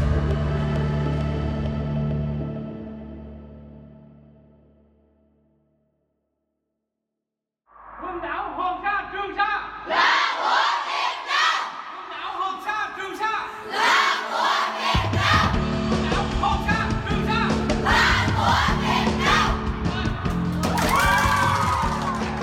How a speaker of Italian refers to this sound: Le voci che avete sentito sono quelle di una trentina di studenti vietnamiti in visita al Museo delle Isole Paracel ad Hanoi. L'insegnante urla Le Isole Paracel e i bambini rispondono Appartengono al Vietnam